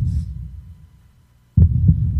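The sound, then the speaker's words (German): A deep, muffled heartbeat thumps in a slow rhythmic pulse, fading briefly before a strong double beat returns, booming with no voices. “Und spüre hinein in diesen Pulsschlag. Der Pulsschlag der Erde entspricht dem Herzschlag deines eigenen Seins.”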